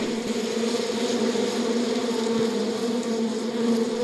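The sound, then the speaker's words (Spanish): A dense, steady hum of many honeybees buzzing together at an open hive as they fly from hive to hive, a continuous droning tone with faint flutters, moderately loud, with no voices. “El zumbido de abejas”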